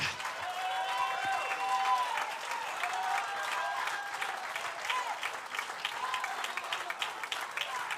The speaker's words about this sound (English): I wish somebody that believes what I'm preaching just stand and give the Lord Jesus, not the preacher, but the Lord Jesus, a great hand clap of thanksgiving.